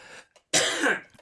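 A single short, slight cough or throat-clear, close to the mic, with a soft breathy lead-in and nothing else around it.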